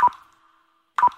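Two clear water drops from a leaking shower fall about a second apart, each a crisp plink with a short ringing tail, with silence in between.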